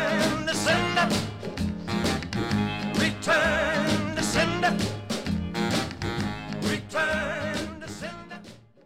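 A recorded rock and roll song plays steadily, with a driving drum beat, a bouncing bass line and a sung lead vocal over a full band, holding loud throughout before easing off at the end.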